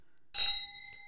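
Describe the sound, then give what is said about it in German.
Drinking glasses clink together in a toast, one bright strike whose clear, high ringing tones linger and fade slowly after a moment of quiet. “Und wir probieren einfach mal. Ich sag ja. mal Cheers, Prost.”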